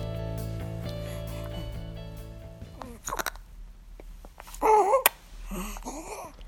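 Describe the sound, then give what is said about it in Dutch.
A baby boy lying on a person's chest gurgles and fusses after finishing a bottle, with soft wet mouth sounds followed by a few short whiny vocal bursts, over a faint low hum. “Ja, een pruttelende baby op mijn borst.”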